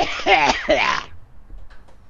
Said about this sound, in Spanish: Esa tos no será coronavirus, ¿no?